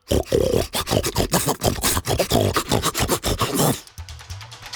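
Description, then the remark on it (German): A human voice growls, grunts and snarls in rough, wordless bursts, imitating children gone wild who have lost their language, loud for about four seconds before cutting off to quiet. “Weil sie nicht mehr in die Schule müssen, verlieren sie komplett die Sprache und reden nur noch so.”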